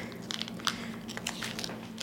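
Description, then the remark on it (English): Kitchen shears snip through plastic chicken packaging, giving a run of short, crisp clicks and crinkles at an irregular pace, with a sharper cut in the middle and another near the end. Nobody speaks. “My little kitchen shears.”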